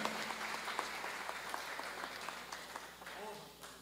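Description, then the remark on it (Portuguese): A church audience applauds steadily, giving praise to the Lord as their bassist is introduced, a dense wash of many hands clapping at a fairly loud level that eases slightly toward the end, with a few voices calling out underneath. “Você pode aplaudir o Senhor pela vida desse querido.”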